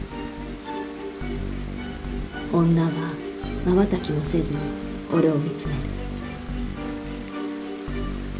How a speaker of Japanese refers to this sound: 窓から差し込む雨が肩で震えるように息をつく女の大きな潤んだ瞳にポツポツと降りかかる